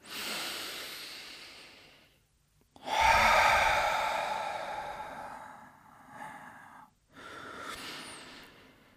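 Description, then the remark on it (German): Deep, audible breathing during a breathing exercise: a long airy exhale, a pause, then a strong full breath out, exhaling fully so all the air leaves the belly, trailing off, followed by another breath, with no talking. “Wenn wir ausatmen, atmen wir ganz aus, dass die ganze Luft aus dem Bauch rauskommt.”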